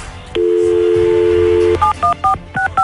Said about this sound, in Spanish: bueno, vamos a marcarle.